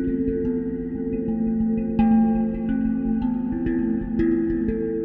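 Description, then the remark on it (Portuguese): A waterphone, a metal instrument filled with water through a tube that serves as its handle and has a reservoir at the bottom, rings out with eerie, sustained metallic tones, struck several times in slow succession so each new note blooms over a low, humming drone that keeps resonating underneath. “Então, o que, que é o waterphone?”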